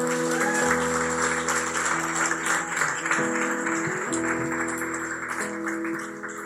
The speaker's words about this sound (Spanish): Den un aplauso, por favor.